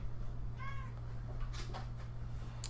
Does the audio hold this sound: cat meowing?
yes